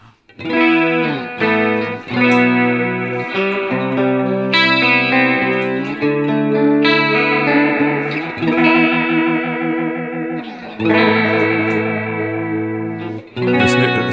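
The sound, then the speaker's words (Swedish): Sustained guitar chords swirl through a rotating-speaker Leslie effect, the warbling modulation speeding up and slowing down across the passage. It plays steadily and fairly loud, with no voices. “Du hör den rampar upp. Och ner. Så att med lite finjustering på det här mm. så får du till en riktigt bra Leslie-effekt liksom.”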